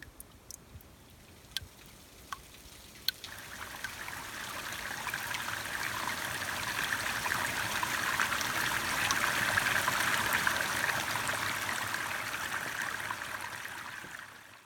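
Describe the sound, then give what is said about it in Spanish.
Groundwater from the aquifers surfaces and flows steadily, a continuous bubbling, trickling rush that grows slightly louder midway, with a few faint clicks near the start and no one speaking. “extrae más de 86 mil toneladas de escombros y basuras de acá y aflora el agua de los acuíferos, el agua subterránea.”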